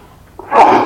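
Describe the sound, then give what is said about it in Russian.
A single sharp, fairly loud sneeze, with a brief intake of breath before the explosive burst; no talking during it. “Будь здоров, спасибо.”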